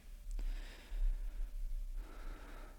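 A long, airy inhale drawn through a pipe, with a brief click near the start, a short pause, then a second breathy pull, close up with no talking.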